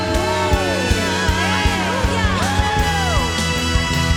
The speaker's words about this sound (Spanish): ¿Cuántos pueden gritar un fuerte amén? Aleluya.